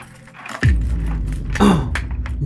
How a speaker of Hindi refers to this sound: उसी दिन जब वह दोपहर में अपनी आराम कुर्सी पर बैठकर किताब पढ़ रही थी तभी उसे फिर से दरवाजा खुलने की आवाज सुनाई दी